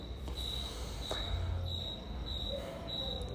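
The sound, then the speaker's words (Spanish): Crickets chirp at night at a fort in a steady, high-pitched trill that pulses in repeated bursts, with a low continuous hum underneath and no one talking. “Aquí se están escuchando los grillos.”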